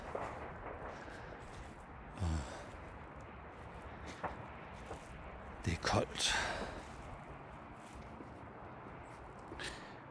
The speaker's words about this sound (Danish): Så er jeg ude på min daglige hverdags pilgrimsvandring. Det blæser vildt.